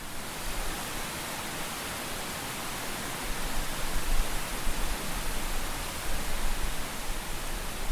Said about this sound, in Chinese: 我们让场景一变，我们来听听，如果是山边溪流的声音。